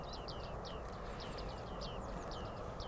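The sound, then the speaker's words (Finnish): Bearded reedlings give a busy run of short, bright pinging calls, several birds overlapping in an irregular series, set against a steady rushing background like wind through reeds. “Jos äänen tunteessa on tuommoinen kuin pingispalloa pomputteli, no, niin, se, niin se paljastaa.”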